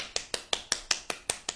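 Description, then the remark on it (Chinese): A brief burst of hand clapping: about eight sharp, even claps in quick succession at a steady rhythm, with no talking. “不过可以了，这对比曾经的你已经很大进步了。鼓掌。”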